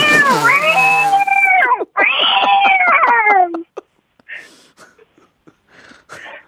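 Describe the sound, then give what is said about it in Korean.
A person imitates an excited cat, giving two long, loud, wavering meows with rising and falling pitch, followed by a few faint breathy sounds and quiet noises. “흥분한 고양이가 우는 소리 들어볼게요.”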